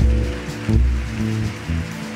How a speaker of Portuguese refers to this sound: Dá uma salva de palmas para para quem veio aqui à frente.